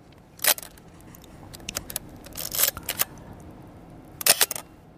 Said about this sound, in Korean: 이거 무슨 소리인지 아시겠어요? 예. 예전에 지금은 뭐 그냥 핸드폰으로 카메라를 쓴, 쓰지만 예전에는 그 카메라가 있었잖아요. 이건 구형 카메라 필름 감는 소리입니다.